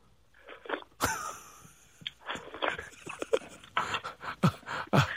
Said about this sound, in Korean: 청국장이요. 청국장 먹는 소리 됩니까? 네. 청국장, 예. 자, 청국장.